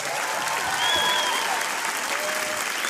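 A crowd applauds with dense, steady clapping that holds at an even, fairly loud level for about three seconds, with a few faint whistles rising above the clapping.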